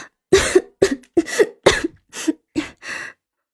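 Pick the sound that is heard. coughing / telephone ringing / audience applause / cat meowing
coughing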